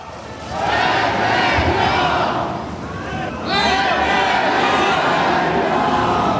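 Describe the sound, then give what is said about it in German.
A crowd of Extinction Rebellion protesters chants loudly in unison at a street blockade on the large intersection by the Urania Parkhaus in Zürich, two sustained shouted phrases separated by a brief dip, with a constant wash of crowd noise underneath. “So hat es in der Stadt Zürich tönt.”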